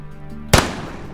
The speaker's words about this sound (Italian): Tyndall decide quindi di sparare al cielo gli ultimi proiettili che ha in saccoccia